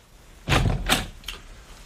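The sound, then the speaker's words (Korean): A father flings open the door of a bedroom at home with a sudden loud clatter, then a second heavy thump and a fainter knock. Brief, with no voices. “거기에다 아버지는 아무 때나 벌컥벌컥 내 방문을 열어젖히곤 했다.”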